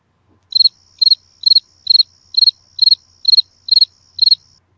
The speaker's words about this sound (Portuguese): Nessa hora eu coloco o som do grilo mais uma vez.